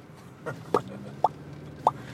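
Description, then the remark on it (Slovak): A voice imitates a cork popping out of a bottle, making about four quick, hollow mouth pops at irregular intervals. The pops are fairly sharp, set over a low background hum. “vyťahneš korko, korok z flaše. tak taký zvuk by to spravilo a ty by si šiel ďalej.”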